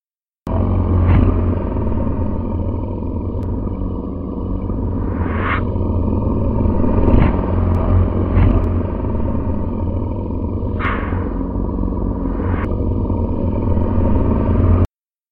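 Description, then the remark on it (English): A continuous deep, heavy rumbling with a grinding, scraping texture, steady and loud for about fifteen seconds, punctuated by occasional brief clattering scrapes, like something massive being dragged over dry ground. “And now, listeners, a deep rumbling sound like a giant dragging its prone, misshapen body across baked, waterless earth.”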